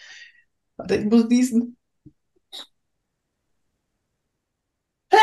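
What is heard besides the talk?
sneeze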